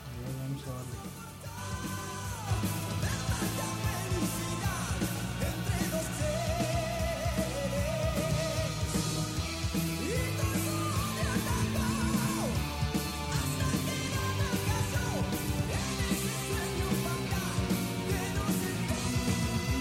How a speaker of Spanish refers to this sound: Eh, importante y una peculiaridad es que el solo de guitarra tiene la misma duración que el solo de la última rola que elegí, para que lo tengan en mente, hay cierta conexión. Y vamos a escuchar este, parte de este, de este solo